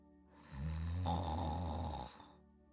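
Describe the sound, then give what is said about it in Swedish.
A single loud, drawn-out snore, a deep rasping rumble that swells for about a second and a half and then fades, with no talking. “När nu vargen hade tillfredsställt sin glupskhet lade han sig åter ner i bädden och började snarka”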